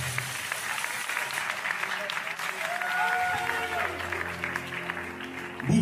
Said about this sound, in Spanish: Hombres, mujeres que han puesto el nombre de Sonora muy pero muy en alto. Felicidades, enhorabuena y vamos a brindarles un fuerte aplauso a todos y cada uno de ellos, por favor.